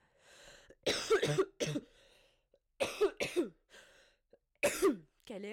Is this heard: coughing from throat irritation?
yes